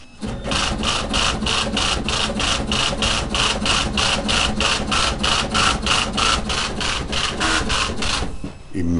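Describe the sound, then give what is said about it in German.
A high-performance braille printer, used to produce an association's media and suited to brochure and double-sided printing, runs loudly and steadily, its embossing head hammering out a fast, even rhythm of sharp mechanical bursts over a constant machine whir. “Hintergrund hören wir unseren Hochleistungsbreidrucker, den wir halt für, zur Produktion unserer Medien benutzen.”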